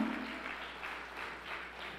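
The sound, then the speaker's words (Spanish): An audience claps steadily in praise of the name of the Lord, a dense wash of many hands with gentle swells in intensity and no voices rising above it. “Vamos, aplauda el nombre del Señor.”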